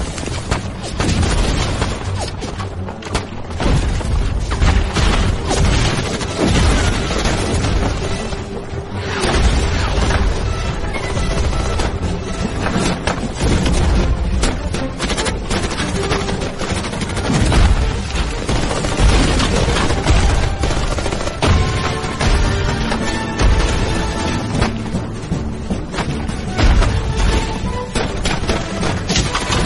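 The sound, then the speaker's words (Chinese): Sustained battle noise of a US assault on the Chinese Volunteer Army's 113th Division, with bombers, artillery, tanks, rockets and napalm: rapid bursts of gunfire and machine-gun fire mixed with heavy booming explosions, loud and dense for the whole stretch, with no speech. “疯了的美军直接调集了近千架轰炸机、上千门大炮，以坦克开路的方式，对仅有几百挺机枪、几千支步枪以及数量不多迫击炮的一百一十三师发起了猛烈的进攻。火箭弹、汽油弹铺天盖地的从天而降，”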